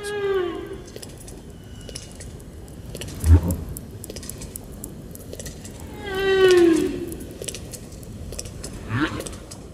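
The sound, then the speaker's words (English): Snapping shrimp crackle steadily underwater, repeatedly slamming shut their tiny claws, making a dense carpet of tiny sharp clicks, while a couple of louder tonal, sweeping calls rise and fade over it. “Snapping shrimp raise sparkling clouds of sound by repeatedly slamming shut their tiny claws.”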